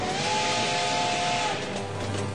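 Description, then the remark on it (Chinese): A small steam train's whistle sounds one long, steady mid-pitched tone over loud, continuous hissing steam; the whistle stops partway through while the hiss carries on to the end. “小火车拉响汽笛，给自己加油打气。”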